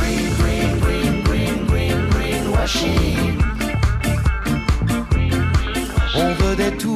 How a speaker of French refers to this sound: Écoutez plutôt ça, un morceau de musique avec du peps, drôle mais qui donne à réfléchir.